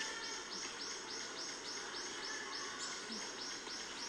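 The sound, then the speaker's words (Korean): Repeated rising bird calls, about a dozen in quick succession, ring out over a steady outdoor backdrop with a faint insect-like hiss, sounding like a brown-eared bulbul calling in a park. “삐끗삐끗 하는 애가 집밥구리예요.”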